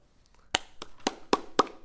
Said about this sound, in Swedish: Åh, oh, tack snälla! Applåder med! Vad roligt!